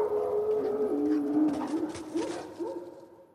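Wolves howl in long, wavering tones that rise and dip, overlapping as two or more voices, steady and fairly loud throughout, with no talking.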